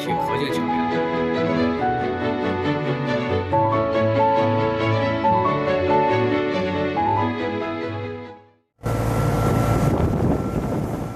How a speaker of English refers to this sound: We are now at the construction site of the Xihoumen Highway Railway Bridge at Zhoushan Islands in the East China Sea freezing winter wind is blowing harshly, forcing much of the marine building activities to a halt.